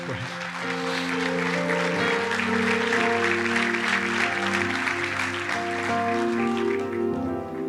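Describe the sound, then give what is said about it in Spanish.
An audience claps loudly and steadily for several seconds in applause to God, a dense wash of applause over sustained keyboard chords, easing slightly toward the end. “del un fuerte aplauso a Dios.”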